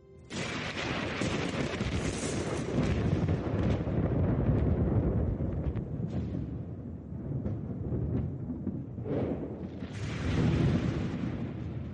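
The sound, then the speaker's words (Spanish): A long, heavy rumble of thunder from lightning during a storm rolls on for several seconds, deep and loud, swelling and fading with crackling bursts, with no voices. “Durante las tormentas, aumentan las cargas eléctricas y crean rayos que pueden alcanzar decenas de miles de grados.”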